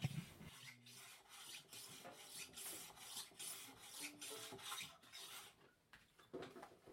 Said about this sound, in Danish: Ude i Erik Hoffmans værksted sidder hans makker Sonja og sliber på et gribebræt.